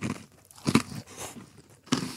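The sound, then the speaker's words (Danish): Crisp crunching as someone bites into a food item while tasting it, with a sharp crunch near the start of the bite and another toward the end, plus softer chewing crackles in between. “Nu bliver der knæset øh, kære lytter.”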